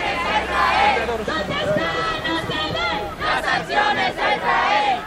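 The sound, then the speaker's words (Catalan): A large crowd of about 2,000 people chants loudly in unison at a pro-Palestine street demonstration in Palma, many voices shouting rhythmic slogans together with a steady, rousing cadence, the sound dense. “I aquests que sentiu són alguns dels càntics que es van sentir en una multitudinària manifestació a favor de Palestina i a Palma.”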